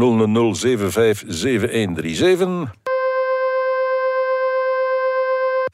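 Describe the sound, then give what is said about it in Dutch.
A voice speaks briefly, then a steady, buzzing electronic tone made by turning a vibrating star's oscillations into sound for researchers in Leuven. It holds one pitch, rich in overtones with a faint regular pulse, for about three seconds. “En die vragen mensen om te luisteren naar het geluid van trillende sterren.”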